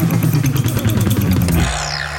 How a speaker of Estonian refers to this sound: see imelik hääl on putukate peletamiseks, et putukate rünnet ei oleks ja just suvel.